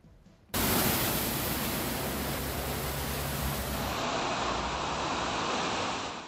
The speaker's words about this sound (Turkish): Kuvvetli sağanak yağış Eskişehir'de etkisini gösterdi ve maalesef mağduriyetleri beraberinde getirdi.